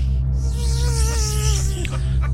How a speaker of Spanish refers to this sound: Abejas asesinas llegan a América. Estaba caminando mi niño de este lado cuando fue atacado por estas abejas venenosas.